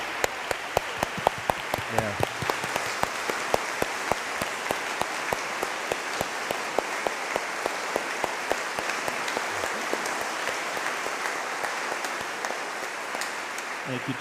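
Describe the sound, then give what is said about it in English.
A church audience claps together in a dense, sustained round of applause giving thanks to God, many hands producing a steady crackling wash that holds an even level for the whole stretch. “Um, I have to I have to turn that applause right back at you because we would not be here today were it not for this body of Christ.”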